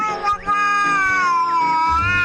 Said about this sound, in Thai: แมวสีส้มขี้อายได้ตะโกนอย่างสุดเสียง เพื่อขอความช่วยเหลือจากสัตว์อื่น ๆ รอบบริเวณ